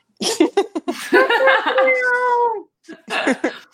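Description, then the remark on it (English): A person vocally imitates a cat, letting out a string of drawn-out, wavering meows in a fairly loud voice, with brief laughter-like bursts around them. “meow meow meow meow.”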